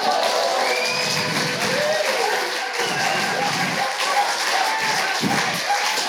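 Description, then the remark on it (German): A crowd cheers and shouts steadily for about six seconds, cheering on a darts throw, a dense, even wash of many voices with some scattered claps and thumps mixed in. “Macht mal ein bisschen, feuert mich mal ein bisschen an hier, Leute.”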